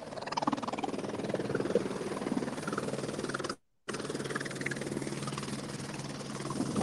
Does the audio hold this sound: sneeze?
no